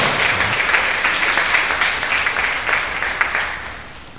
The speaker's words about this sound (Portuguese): Então vamos aplaudir o Senhor bem forte nessa manhã. Bem forte. Pode aplaudir o Senhor.